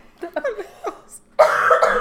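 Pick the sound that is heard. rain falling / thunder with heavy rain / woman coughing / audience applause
woman coughing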